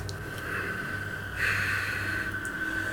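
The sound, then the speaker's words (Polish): Heavy, raspy breathing, a drawn-out airy rush that swells louder partway through and keeps going steadily, with no one talking. “Idziesz powoli mhm. i słyszysz oddech.”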